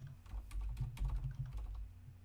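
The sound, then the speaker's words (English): Rapid, irregular clacking of keys on a computer keyboard, a quick burst of keystrokes with no voices, tapering off toward the end. “I'm typing it with two L's.”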